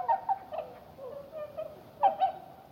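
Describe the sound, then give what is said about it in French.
Bewick's swans, wintering birds from Siberia, call in soft, hooting bursts at dawn on a partly frozen pond in a nature reserve in Haute-Marne, France, on a freezing morning: a few quick clustered calls, then a pause and another pair, over a quiet, steady background. “Ces bruits, ce sont des signes de Bewick avec leur bec noir et jaune.”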